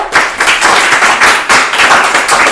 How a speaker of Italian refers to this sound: In tutto ciò però noi siamo molto contenti di avere qui con noi un autore di thriller che al Covo seguiamo da un po' di tempo e che ci piace anche parecchio e che è Tim Weaver. Grazie, un applauso.